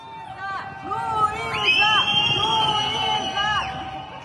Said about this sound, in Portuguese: Aí, a pedido da mãe, os vizinhos cantaram parabéns das varandas de seus apartamentos.